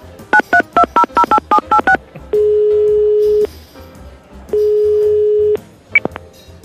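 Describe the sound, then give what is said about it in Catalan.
A phone number is punched in as a quick run of about ten sharp dual-tone keypad beeps, followed by two long, steady ringback tones with a short pause between them, clear. “Passa'm el telèfon.”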